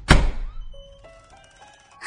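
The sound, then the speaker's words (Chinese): A room's door handle being rattled: one heavy thunk at the start, then faint lingering metallic ringing and a few soft clicks, with no voices. “下一刻，小美房间的门把开始震动起来。”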